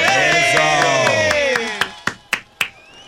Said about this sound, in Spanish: un, aplauso para Nuevo Yente. un aplauso.